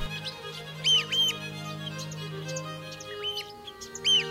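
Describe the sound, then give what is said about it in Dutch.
Shrill, piping bird calls ring out in short repeated bursts. Red-billed oystercatchers give sharp kleep notes several times over a low steady hum. “Dat zijn scholexers daar, die aan het kepieten zijn. Kepiet, kepiet.”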